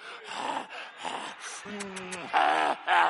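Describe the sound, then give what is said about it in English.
A voice imitates heavy breathing and moaning to illustrate erotic love: several breathy gasps, then sustained drawn-out moans with wavering pitch, rising louder toward the end, alone without ordinary speech. “That's that hard breathing and”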